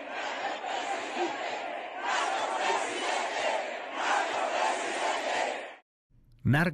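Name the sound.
protest crowd shouting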